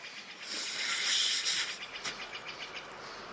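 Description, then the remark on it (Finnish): Heavy rain pours down in a rainforest, a steady, dense hiss that swells slightly and then eases, with faint scattered patters. No one speaks. “Sanoit jotain sateen aikana. Että kauanko sade jatkuu?”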